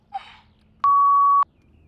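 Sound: voicemail beep tone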